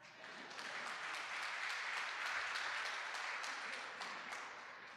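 A round of applause from a crowd thanking a helper during a Bible reading, dense steady clapping that swells quickly, holds for several seconds, then begins to taper, with no one speaking over it.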